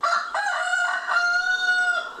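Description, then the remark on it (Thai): A male gamecock (fighting rooster) crows loudly, one long drawn-out cock-a-doodle-doo with a rising start and a sustained, wavering final note lasting about two seconds, with no other sounds around it. “ไก่อู ไก่ต้องเนี่ยส่วนใหญ่ใช้เป็นชื่อเรียกไก่ชนนะครับตัวผู้”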